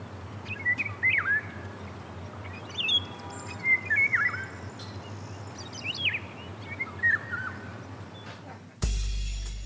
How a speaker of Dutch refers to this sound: Eh, de wielenwaal. Doe maar een gele wielenwaal dan.